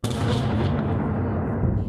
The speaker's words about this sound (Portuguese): Dormem e acordam ao som de bombardeios.